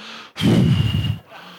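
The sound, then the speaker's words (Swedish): One long, loud, exaggerated impatient exhale, a heavy huffing breath lasting nearly a second, made by a man standing behind his wife while she shops, with quiet before and after and no talking. “Efter fem minuter då börjar jag andas här bakom henne.”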